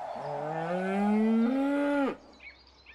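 A single long cow moo, loud, rising slightly in pitch for about two seconds before cutting off, followed by faint bird chirps in the background.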